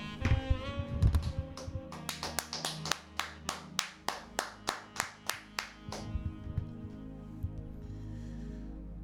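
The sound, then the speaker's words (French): Applause on a radio show in a steady rhythm: about a dozen sharp, evenly spaced claps, strong and bright, over a sustained musical background that keeps playing after the clapping fades out. “Je demande donc des applaudissements.”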